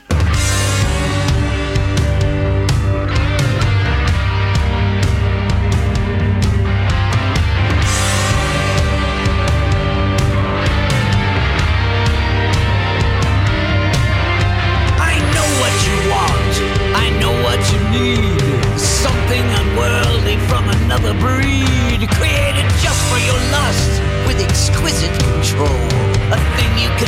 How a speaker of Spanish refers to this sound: Así que, mis queridos rockeros, hoy, en esta sección Genios del Rock, vamos a escuchar el nuevo simple